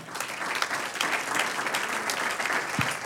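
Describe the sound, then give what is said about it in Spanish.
An audience gives the Lord a round of applause, a dense wash of many hands clapping steadily at a fairly even, moderate loudness for a few seconds with no voices standing out. “Un aplauso al Señor.”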